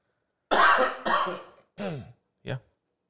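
coughing into the microphone

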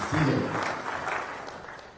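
audience clapping hands

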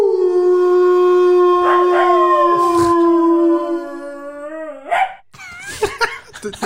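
wolf howling sound effect

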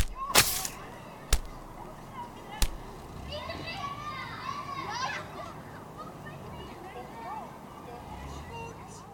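children playing outside

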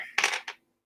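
dice being rolled

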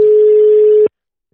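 phone call ringing tone

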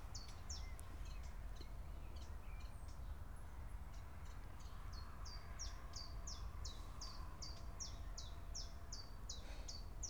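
common chiffchaff singing

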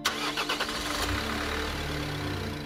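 car engine starting

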